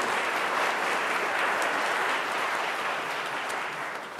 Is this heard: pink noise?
no